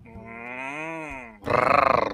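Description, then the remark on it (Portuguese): A person vocally imitates a cat's meow: a sustained, wavering tonal note with a slight pitch rise and fall, followed by a louder, rough, pulsing growl-like burst, all without speech. “Não estou entendendo essa esse miau do senhor.”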